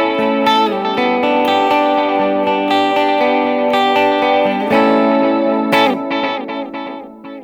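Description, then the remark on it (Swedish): Loud, sustained electric guitar notes drenched in two separate modulated delays, dotted and quarter-note, set with different times, modulation depths and EQ for a signature guitarist's feel and wide stereo; repeats overlap with a gently wavering shimmer, ringing on and tapering off at the end with no one talking. “Och det som är intressant när man kör två separata delay så här är att då kan du sätta olika tid, olika modulationsdjup, olika, olika vad heter det, EQ.”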